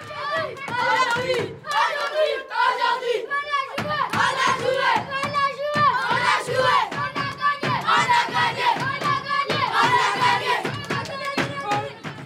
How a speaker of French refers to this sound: Forcément, après le match, c'est la fête dans le vestiaire, pour les joueurs comme pour les quelques dizaines de supporters venus les soutenir.